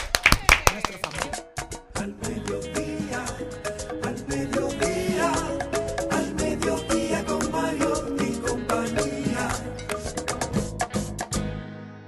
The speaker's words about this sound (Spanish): Felicitamos a Gerdau Metaldón por reafirmar su compromiso para que la productividad vaya de la mano con los objetivos de desarrollo sostenible. Un aplauso para ellos.